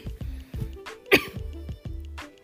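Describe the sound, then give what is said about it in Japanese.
A burst of several short coughs in quick succession from a person who has been tired lately and has started to cough, with one sharper, louder hack in the middle and throaty low rumbles between them; no words are spoken. “すいません最近疲れててちょっと咳が出始めててまあコロナが 流行ってるのもあるから”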